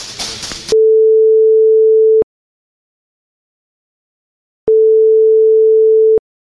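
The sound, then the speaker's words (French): A telephone line tone plays two long, steady electronic beeps, each about a second and a half, separated by a stretch of silence, after a brief burst of noisy rustle at the start. “Je suis surprise de son premier coup de fil, mais je choisis de rester calme et positive, pour que nous ne soyons pas deux à nous noyer dans la panique de ses doutes.”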